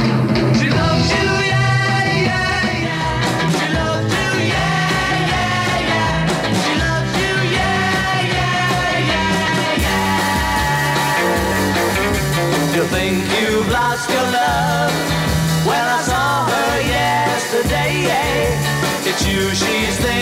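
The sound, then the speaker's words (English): A live band plays an upbeat pop song at full volume, with driving drums, guitars and bass under a singing voice, steady and energetic throughout. “We'd like to carry on with a new song”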